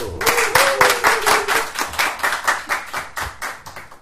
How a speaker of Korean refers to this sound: 박수 잘 쳐주셔서 아, 박수 잘 쳐주셔서 여기 모신 거예요.